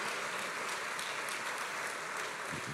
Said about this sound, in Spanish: Pero mire, pero mire, no, no, no quiero que, le dé un aplauso a mí, si nos debemos dar un aplauso, démosles al Señor, porque su propósito es más grande que uno, hermano.